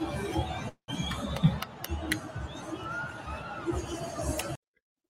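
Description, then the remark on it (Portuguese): A dense roar of football fans fills the space, a steady wash of shouting and babble with a few sharp bursts cutting through, briefly interrupted near the start and stopping abruptly. “Olha a torcida.”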